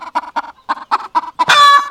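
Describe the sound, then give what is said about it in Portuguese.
A hen clucks in a quick, steady series of short, close notes, then finishes with a louder, drawn-out harmonic squawk. No talking. “Era conhecida como a Galinha Galo Brasileira.”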